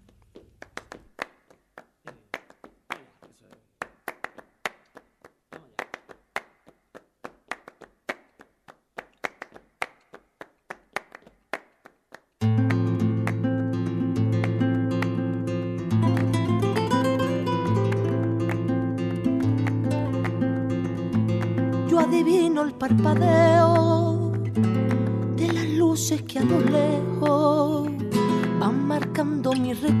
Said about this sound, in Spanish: Nos vamos para España para escuchar a una enorme cantora o cantaora.